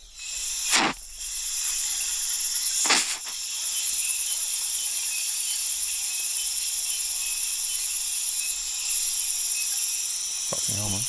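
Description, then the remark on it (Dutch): A dense, continuous chorus of crickets and insects fills a night jungle, recorded from inside a hut, steady high-pitched chirping throughout, with a couple of brief sweeping calls near the start and a low rustle at the end. “Midden in de jungle. Je hoort de krekels en dingen.”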